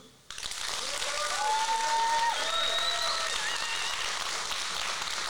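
A crowd bursts into steady, sustained applause that starts abruptly and keeps going at full strength, with a few faint whistles or cheers rising above the clapping.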